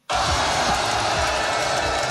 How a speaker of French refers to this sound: Si la foule hurle, c'est parce que Florent Manodou vient d'inscrire un panier. Le sport pratiqué, le basket fauteuil.